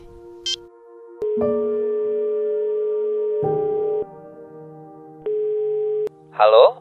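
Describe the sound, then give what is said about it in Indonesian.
A brief dialing beep is followed by steady, electronic telephone ringing tones in long bursts with small clicks between them, heard over the line as someone phones their father at night, before a voice briefly cuts in at the end. “Telepon ayah? Iya, kayak gue harus telepon ayah deh.”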